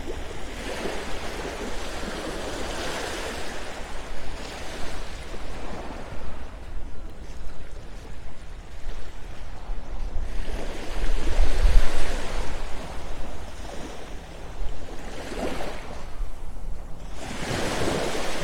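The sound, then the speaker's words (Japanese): Ocean waves roll in and break on the shore at Hayama, Kanagawa Prefecture, Japan, in repeated surges, each swell building into a broad wash of surf before fading, with a steady low rumble underneath and no voices. “3分間だけ波音を流そうと思います”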